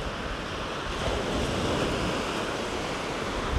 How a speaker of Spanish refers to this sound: Bueno, eso que vas a escuchar de fondo es mi mar, el mar que te compartí en el último podcast. Estoy ahora en la playa, acabo de meditar. Y si escuchás muy suavemente las olitas,